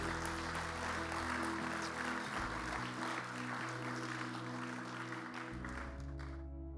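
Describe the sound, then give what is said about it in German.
Sustained audience applause, a dense wash of many hands clapping at steady strength for several seconds over low droning tones, trailing off abruptly at the end. “Nur diesen Applaus mal für die Jungs erstmal.”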